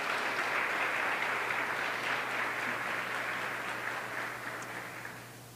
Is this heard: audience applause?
yes